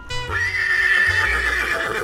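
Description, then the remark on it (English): A person imitates a horse's whinny, one sustained, loud, quavering neigh about two seconds long, with no other sounds around it. “I can sound like a horse.”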